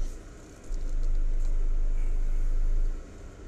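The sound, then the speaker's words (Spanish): A car engine turns over and catches, settling into a steady low idle rumble for a couple of seconds before dropping back down, with no talking. “Un momentito voy a arrancar el coche, salgo y sigo contando.”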